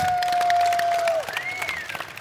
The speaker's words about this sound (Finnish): Aplodit.